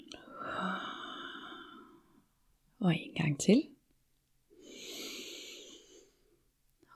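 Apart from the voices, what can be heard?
breathing in through nose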